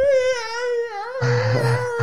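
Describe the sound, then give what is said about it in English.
A voice imitates the eerie Ben Kenobi scream as done by Boba Fett, a long sustained wail with a steady pitch that shifts slightly, then turns rougher and noisier with a low rumble underneath for the final second. “And and here comes Boba Fett doing the old freaking Ben Kenobi scream.”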